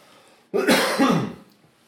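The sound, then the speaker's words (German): A short cough with a rough, throat-clearing edge, coming in two quick bursts before trailing off into quiet. No one speaks. “Ich huste kurz.”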